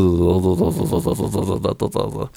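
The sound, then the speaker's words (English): A person's voice imitates an animal's contented purring chitter, a steady run of rapid, rhythmic voiced pulses lasting a couple of seconds, with a few brief breaks near the end. “So that's called like purring or chittering or like.”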